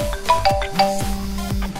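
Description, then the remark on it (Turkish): A telephone rings on another line, a short electronic ringtone of bright repeating tones that pulses steadily for a couple of seconds, clear with no voices over it. “Ay öbür hat çalıyor pardon Kamal'ı biraz bekle çeker.”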